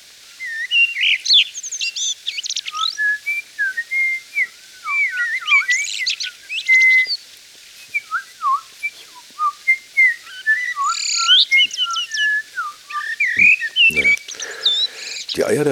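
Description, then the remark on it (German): A male common blackbird sings continuously, mixing clear fluting whistles with quick high twittering chirps in a varied, lively stream. No voices are heard. “Also das Männchen mit diesem rabenschwarzen Gefieder und dem knallgelben Schnabel und den tiefschwarzen Knopfaugen mit so einem kleinen, feinen, gelblichen Ring und natürlich dieser atonale Gesang, den man kaum imitieren kann.”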